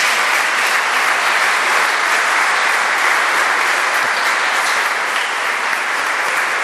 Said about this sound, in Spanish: Vamos a dar a todos los ancianos que estamos aquí presentes un fuerte aplauso.